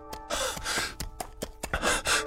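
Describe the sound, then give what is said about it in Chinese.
Heavy panting breath of a person who has run in from outside: a quick, uneven run of loud, rough gasps in and out, breathy and hoarse, with no words spoken. “这时，外面一个人气喘吁吁的说道：”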